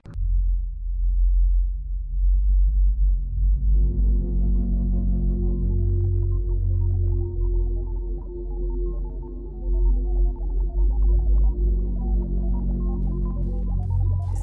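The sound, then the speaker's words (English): A recording of an intercepted transmission: a steady, loud low electrical hum that gains layered droning tones after a few seconds, pulsing slightly throughout with no voices. “What you are listening to is the recordings of intercepted transmissions.”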